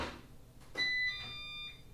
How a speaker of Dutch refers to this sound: Piep, piep. U hoort nu een piepje, hij moet even nadenken. En nu gaat de Janny mijn kantoor zuigen. Ik weet niet of je het goed kunt horen, maar hij maakt weinig eh, geluid.